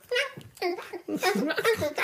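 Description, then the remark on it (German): A voice imitates baby noises, producing a quick run of short, high-pitched babbling and cooing bursts, with a giggly, sing-song quality and brief pauses between them. “Ganz komische Geräusche, Baby.”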